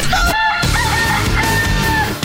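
A rooster crows loudly, a drawn-out cock-a-doodle-doo with strained, wavering harmonics, heard alone without any talking.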